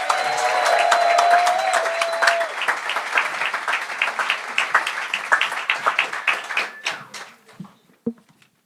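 A show audience welcoming the first performer bursts into loud applause with whoops and whistled cheers at the start, the clapping staying dense for several seconds before thinning into scattered claps and fading out.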